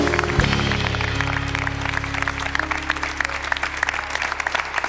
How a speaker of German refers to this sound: Ein warmer Applaus tut gut.